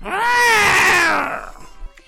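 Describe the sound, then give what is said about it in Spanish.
A single loud, drawn-out cat yowl that wavers and slides downward in pitch for just over a second, then fades into near silence, as a cat in a kitchen scratches a man's face. “Pensando que los ojos brillantes del gato eran brasas, acercó una cerilla, pero el gato, que no estaba para bromas, resollando le arañó la cara.”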